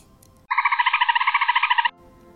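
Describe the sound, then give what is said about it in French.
A dolphin playing in the sea waves gives a loud, buzzy chatter of about fifteen rapid pulses at a steady, fairly high pitch, lasting over a second, with faint low rumbling before and after. “C'est un dauphin s'amusant dans les vagues.”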